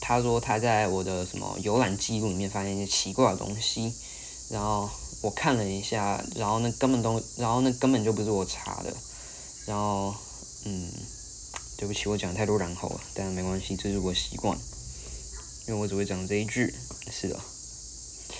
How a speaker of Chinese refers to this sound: 然后我家那个旁边又是山，然后就是很多虫鸣鸟叫。现在又刚好夏天，所以敬请见谅啊，希望不会盖过我的声音，应该是不会啊，应该是不会。